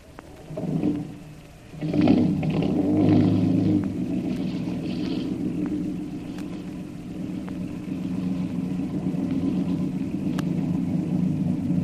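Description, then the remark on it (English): A lifeboat's small motor sputters to life and keeps running with a steady, low droning rumble and faint tonal hum, continuous throughout, with no one speaking. “Got your motor”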